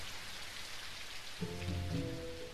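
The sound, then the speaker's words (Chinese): Steady rain falls in a continuous, even hiss with no voices. About halfway through, a low, sustained tonal sound rises beneath the rainfall. “汤姆和杰克安静的坐在干草堆旁边，等着雨停下来。”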